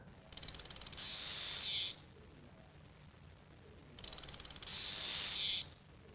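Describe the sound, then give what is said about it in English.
A single cicada sings two loud, high-pitched calls, each opening with a quick run of ticking clicks that swells into a steady shrill buzz, separated by a few seconds of quiet. “Did it sing, that lone cicada? Uh, yeah, yeah, it was singing.”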